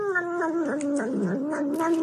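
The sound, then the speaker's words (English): A cat caterwauls in a long, wavering, drawn-out yowl that rises and dips in pitch, loud, with no talking over it. “I wonder what the cat. Well, I don't wonder what the cat be doing.”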